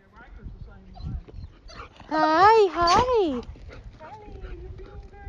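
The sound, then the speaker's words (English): A golden retriever cadaver dog, with its handler at a search site in the hot Florida sun, lets out two loud, wavering whining cries back to back, with a person's voice greeting it briefly before and talking quietly afterward. “the handler, …, the golden retriever, and I got our instructions”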